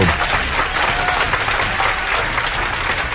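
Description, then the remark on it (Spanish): Sustained applause from a crowd for the news media, given at a speaker's request: a dense, steady wash of many hands clapping at once, fairly loud and even throughout with no pauses or speech. “Dale un aplauso a los medios de comunicación, por favor.”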